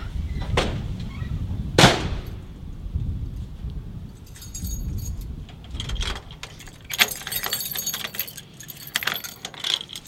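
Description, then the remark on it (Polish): Keys jingle and clink repeatedly in bursts, with sharp metallic rattles over a low outdoor rumble, as someone works a key lock that keeps a valuable object locked away. “Centne to na klucz. Musi być zamknięte.”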